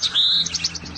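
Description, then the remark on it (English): A Bewick's wren sings clear: a high drawn-out whistle followed by a quick run of repeated bright chirps, with no voices, only a soft low background hum. “That's the Bewick, and it's spelled B E W I C K.”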